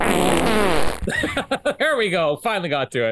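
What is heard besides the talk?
fart sound effect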